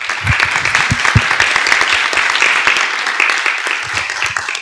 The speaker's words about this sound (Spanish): Bueno, primero que nada quiero agradecerte otra vez, profe, y quiero que todos le demos un fuertísimo aplauso a nuestra invitada.